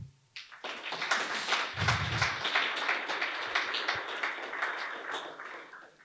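A crowd breaks into sustained applause welcoming Juraj Vitek, a priest of the Bratislava archdiocese, at a discussion on contemporary art in liturgical spaces: dense overlapping claps filling the whole stretch at a steady loud level, with a brief low thump early on and no talking.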